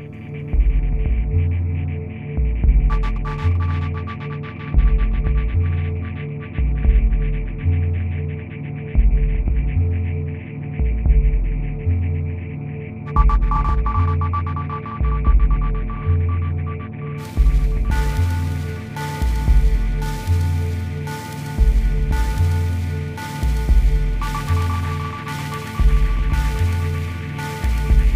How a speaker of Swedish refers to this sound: den här mjuka basen, rytmen som ändå antyds i delayet. Det finns liksom en puls i det.